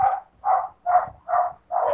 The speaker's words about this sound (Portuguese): Puta que pariu, meu cachorro resolveu latir.